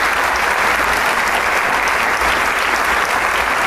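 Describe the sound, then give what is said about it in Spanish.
Sustained applause from a concert audience at the Teatro Isabel Martínez as the maestro comes out once more to bow, a dense, steady wash of many hands clapping at even loudness throughout, with no voices standing out. “Y bien, cesa el aplauso, se prenden las luces”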